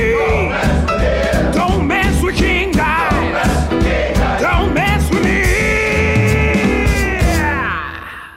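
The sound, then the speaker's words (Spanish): A loud, brassy big-band style video game theme, the King Dice theme from the game Cuphead, plays with a bouncing bass beat, swooping horn-like lines and busy percussion, trailing off at the very end. “Lo que acaban de escuchar es el tema del Rey Dado de King Dice, del juego, del juego de Cophead.”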